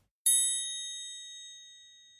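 A single bright, high bell strike rings out clearly on its own, its shimmering tone slowly fading over a couple of seconds, rung to close out the year 2021.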